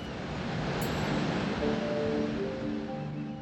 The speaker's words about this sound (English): And when you actually look at the beach itself, it's, it's pretty menacing. You can kind of see these large waves coming on shore. It's a very different beach experience than in uh, California.